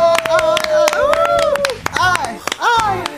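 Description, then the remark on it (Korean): A few people clap their hands in quick, uneven bursts, applauding themselves after a correct quiz answer, while excited voices whoop and exclaim over the applause. “자, 우리 우리 모래 박수 한번 보내주세요 스스로에게.”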